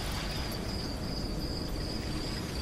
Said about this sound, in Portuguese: Adoro este silêncio, calmo, bordado pelo estridular dos grilos e pela suave dança dos canaviais.